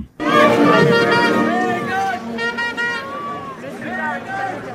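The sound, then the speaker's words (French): A dense crowd of Colombian cycling fans cheers and chants at a podium ceremony, many voices overlapping in a loud, sustained roar that swells and dips slightly over a few seconds. “Et lors du protocole, il y avait des Colombiens qui sont toujours très présents. Euh, écoutez, ça dure quelques secondes, mais l'ambiance.”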